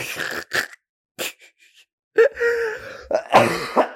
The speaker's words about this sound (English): Oh my god. That laugh turned into a cough.